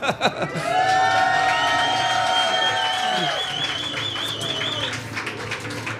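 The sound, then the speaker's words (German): A small crowd cheers and claps for several seconds, with loud whoops and shouted voices rising over a steady wash of applause and one long wavering whistle-like cry. “Gib mal einen Pla Applaus hier.”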